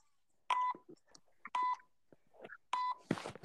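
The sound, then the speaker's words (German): An electronic device beeps three times, short steady tones spaced roughly a second apart, with faint clicks and bits of noise between and a brief rustling burst at the end. “Mein Handy wird wohl kaum piepen.”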